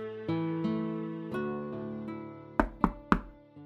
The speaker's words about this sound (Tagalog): may kumakatok sa pintuan. Tignan mo nga kung sino yon.